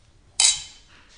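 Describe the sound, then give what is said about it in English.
Two wine glasses touch together in a toast, a single bright glass clink ringing out sharply, then fading with a shimmering tail over a quiet background. “Before we begin, we better cheers.”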